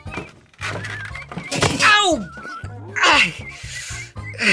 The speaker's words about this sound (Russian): Так кто же оставил на лестнице энциклопедию? Я запнулся об нее и упал. И наша драгоценная капля пресной воды вылилась мне прямо в тапок.